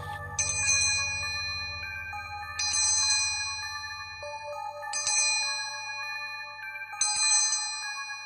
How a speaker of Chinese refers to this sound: 可是每次我都会在儿子睡着的时候，就会听到铃铛声。